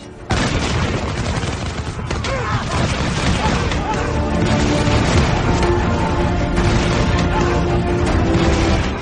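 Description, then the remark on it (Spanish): Loud, sustained musket volley gunfire as more muskets join in firing on troops, with many overlapping shots and booms crackling together into a dense, continuous, unrelenting barrage for the whole stretch. “Más mosquetes se unieron a la faena abriendo fuego sobre los nuestros.”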